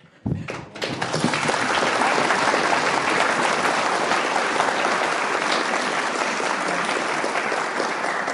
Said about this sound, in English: Let's have a round of applause for our speaker, please.